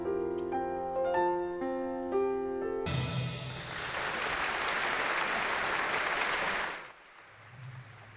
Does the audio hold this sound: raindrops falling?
no